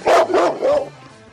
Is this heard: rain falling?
no